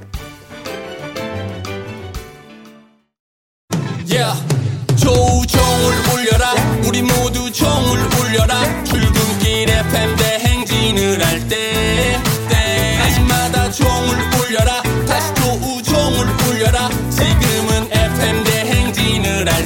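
A full band song plays loudly, with a brief gap of silence near the start before drums, bass, guitars and keys kick in with a steady, driving beat.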